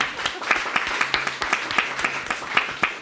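An audience applauds a guest panelist, a media researcher and digital hygiene educator, at an evening event: a steady, dense patter of many hands clapping, with sharp individual claps standing out in an uneven rhythm, moderately loud throughout.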